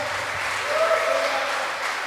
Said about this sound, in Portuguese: Vamos aplaudir o Senhor Jesus bem forte, irmão. Aleluia. Aplaude mais forte.